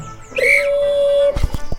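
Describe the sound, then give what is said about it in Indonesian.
One long, steady whistle blast of about a second, loud, blown to start a race, immediately followed by a quick run of thudding, hoof-like footfalls. “Suara peluit menggema di antara pepohonan.”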